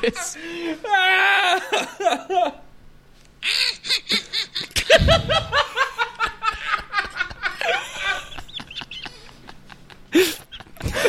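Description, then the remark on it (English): A sinister laugh sound effect: a loud, drawn-out cackle in rapid rhythmic bursts that rises and falls in pitch for about ten seconds, with a deep booming thud partway through. “The sinister laugh yes.”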